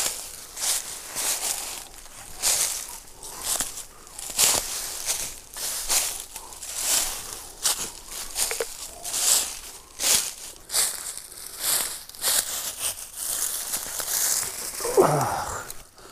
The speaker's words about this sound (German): Ja, man hört es ja auch direkt, wie trocken das ist, ne? Ja. Ich hoffe, ihr könnt das auch hören. Trockenes Laub.